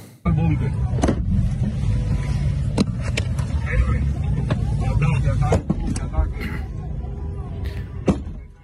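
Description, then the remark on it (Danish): A man with a club repeatedly smashes a car carrying opposition officials outside the parliament building in Venezuela, roughly eight or nine sharp, irregular blows with glass breaking, set against a constant rumble of a shouting crowd and voices. “Ja, det er en video, hvor en mand med en kejle sår hamrer løs på en bil, øh, så glasset går i stykker, øh, og så øh, med en sten, hvorefter de så kører væk.”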